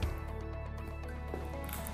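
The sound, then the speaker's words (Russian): A quiet sip from a drink, with soft wet slurping and small liquid squishes over a steady low hum, and no talking. “Я прихлебну в этот момент.”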